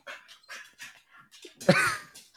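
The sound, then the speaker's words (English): A female dog whimpers and yips in short bursts, then lets out a louder, drawn-out whine-bark near the end, alone without any talking. “Oh, sorry, my dog.”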